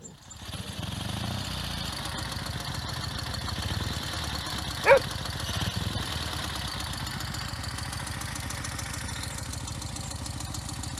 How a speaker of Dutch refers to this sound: Ze rijden naar het bietenveld. Nou, daar komen ze mooi niet doorheen met die motoren.